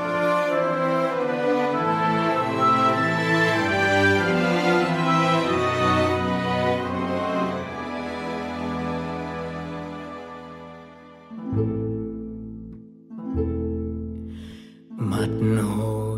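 A song's instrumental intro plays with rich, sustained tones that swell and hold, then thin out into a few short separated phrases near the end. No one speaks over it.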